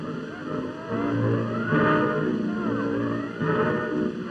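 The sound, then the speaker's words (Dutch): Heavy mechanical noise from a naval gun being loaded on the fire controller's order aboard the Dutch gunboat HNLMS Flores in an allied fleet: a steady machinery rumble and whine with shifting clanks and grinding, fairly loud, swelling slightly midway, with no one speaking. “Aan het lawaai bij de kanon weten wij dat de vuurleider heeft laten laden en nu wacht op het rapport dat alles klaar is.”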